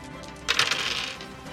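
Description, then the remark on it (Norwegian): A short burst of dice rattling and clattering across a hard surface, a quick cluster of bright clicks that rises suddenly and fades out within a second, with no voices. “er for mye terninger.”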